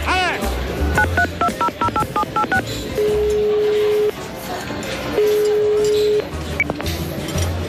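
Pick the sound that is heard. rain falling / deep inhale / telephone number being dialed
telephone number being dialed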